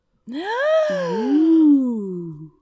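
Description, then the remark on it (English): A loud voiced gasp of surprise that jumps up in pitch and then slides down into a drawn-out breathy exclamation, lasting about two seconds with no other sound around it. “Gasp! Whoa. Gasp.”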